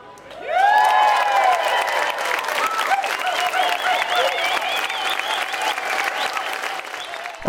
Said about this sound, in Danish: her blev der klappet godt og grundigt af Høst, som sang et læsø potpourri bestående af traditionel dansk dansemusik fra Læsø, indspillet på fugspot scenen under Tønder Festival sidst i august.